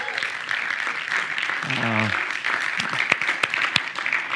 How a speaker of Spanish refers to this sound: y quiero que les demos un aplauso por eso, por lo bien que lo han hecho.